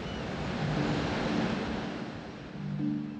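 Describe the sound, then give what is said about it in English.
Steady roar of ocean surf on the beach at Long Beach, Washington, with gusting wind buffeting the microphone, a broad wash of noise that swells slightly near the end, with no voices present. “Here I am in Long Beach, Washington, greeting visitors to the beach.”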